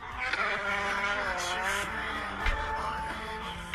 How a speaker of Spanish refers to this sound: Uf, qué delicia. Su Mercedes drifteando.